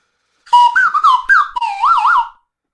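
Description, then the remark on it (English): A slide whistle plays alone for about two seconds, its loud, pure tone sliding between pitches in short swoops before ending in a quick wavering up-and-down warble. “what is the best noise that a slide whistle makes?”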